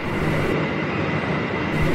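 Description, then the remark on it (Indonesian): A train bound for Jakarta rolls steadily along the rails at night, a loud, continuous rumble with no pauses and no voices. “Pak, sorry mau nanya, ini benar kereta tujuan Jakarta kan ya?”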